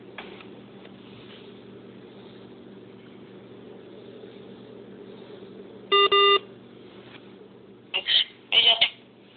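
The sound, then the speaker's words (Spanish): Phone call reconnecting beeps: a steady low line hum, then a loud double-toned electronic beep around six seconds, followed by a quick cluster of three sharp beeps near the end. “Ah, ahora sí me están reconectando la llamada, están jugando en serio.”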